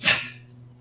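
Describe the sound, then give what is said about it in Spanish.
A single short, sharp sneeze bursts out, bright and breathy, then fades into a quiet low hum. “Salud.”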